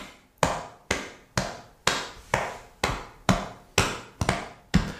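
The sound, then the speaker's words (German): A hand beats steadily on a chest, about ten dull, booming thumps at an even, quick pace, each hit deep and punchy like a bass drum, with no talking. “Der Brustbeat klingt wie so eine Bassdrum, so ein bisschen dumpf. Ich mach's mal vor.”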